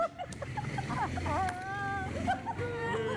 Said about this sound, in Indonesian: kenceng banget tuh motor lewat eh, gila gila gila gila